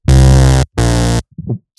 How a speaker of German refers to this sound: Und das Ding klang, klingt aber wirklich gut, dieser, dieser Minimoog, dieser virtuelle, dieser äh, i-Minimoog. Man hört es vielleicht. Ja, es ist lauter als deine Stimme. Ja, muss so sein. Das Bass das Kraft.